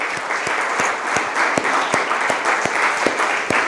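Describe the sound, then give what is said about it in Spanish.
An audience applauds the Lord steadily, a dense wash of many hands clapping, with sharper individual claps standing out at a roughly regular beat through the whole stretch. “¿Cómo no darle un aplauso más grande al Señor?”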